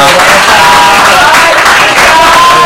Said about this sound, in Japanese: 最後に大きな拍手お願いしますありがとうございました